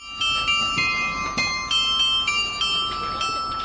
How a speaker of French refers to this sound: On entend le carillon. Il est 9h.